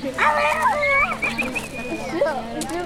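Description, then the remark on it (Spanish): A dog yelps loudly after being kicked by a cow, giving a few high, wavering cries that stretch into a drawn-out whine and trail off in a short final yelp. “Vamos, vamos, vamos, la vaca, le pegó Vamos, vamos, vamos. le pegó una patada perro.”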